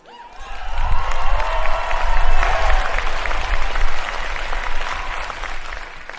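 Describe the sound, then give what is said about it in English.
A large live audience on a campus applauds, steady dense clapping with a few cheers and whoops mixed in, loud and sustained throughout. “you know, I'm feeling good today because this is the first time I've been in front of a live audience hearing live applause since last February, 14 months ago.”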